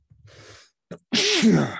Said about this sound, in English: God bless you. Ah, that's a manly fucking sneeze